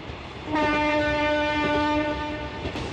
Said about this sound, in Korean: 저 멀리 기차가 떠나는 모습을 지켜보지요.